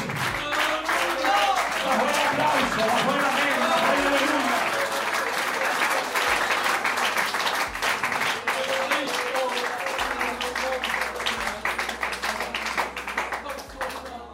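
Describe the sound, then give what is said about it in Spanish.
An audience at a church service applauds loudly and steadily for about fourteen seconds, dense clapping filling the whole stretch while voices call out underneath. “aplauso. el aplauso,”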